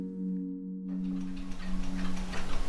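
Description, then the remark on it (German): More than 120 old pendulum clocks, each nearly one meter tall and hung two above each other on the walls of a house, tick together in an overlapping, uneven clatter of small clicks, starting after a steady low electrical hum and growing denser and louder toward the end. No one speaks. “Es sind fast alles alte Pendeluhren, jeweils knapp einen Meter hoch und sie hängen immer zwei übereinander an den Wänden.”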